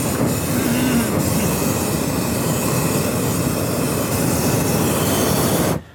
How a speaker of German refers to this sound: Il tun saudet il barjader dil ballon d'aria calda, si vince scaldau.